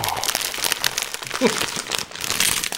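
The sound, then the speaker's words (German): Continuous crinkling and crunching of a small plastic bag of bruschetta chips being handled and squeezed, with dense crackly rustles throughout and a brief murmur of voice partway through. “Ach ja, Cracker oder sowas. Bruschetta Chips. Ja, hier, hört ihr mal.”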